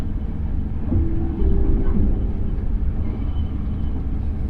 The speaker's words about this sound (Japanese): Thank you for using JR 九州 This train is the Relay Common Limited Express, bound for Hakata. The next station is Tosu, after leaving. Tosu, we will stop at our final destination, Hakata.